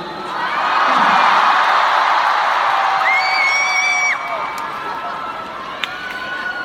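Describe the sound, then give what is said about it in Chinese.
A huge concert crowd at a large venue in Shanghai roars and cheers without pause, with shrill, high-pitched screams and whoops piercing through the loud wash of noise before it eases slightly toward the end. “包括呐喊的声音。”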